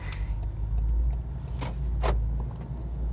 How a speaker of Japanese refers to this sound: エンジン音や、えー、外乱が入るかもしれませんけどご了承ください